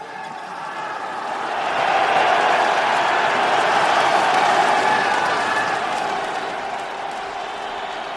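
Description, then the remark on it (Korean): A large stadium crowd at an athletics selection competition murmurs and roars in a steady, dense wash of voices, swelling louder for a few seconds in the middle before easing back slightly. Scattered clapping mixes in. “관중 속엔 사람들이 왜 이렇게 많아?”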